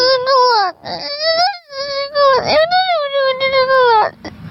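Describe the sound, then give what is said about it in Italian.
A baby boy cries in long, wailing bursts, the pitch rising and falling through each sustained cry, with brief gasping breaths between them. The crying is loud and continuous, with no other voices. “Allora, questo è un bambino sempre maschio, eh,”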